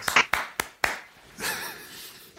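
Four quick, sharp hand claps ring out close by, followed by a brief stretch of noisy, clattering commotion as the clapping fades.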